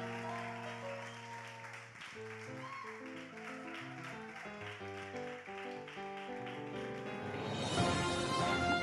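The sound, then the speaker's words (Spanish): Steady held keyboard chords play for several seconds, then a church audience bursts into loud applause over the music near the end to welcome a preacher, clapping densely. “Recíbalo con un fuerte aplauso.”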